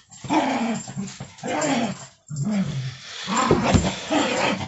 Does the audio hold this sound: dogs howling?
yes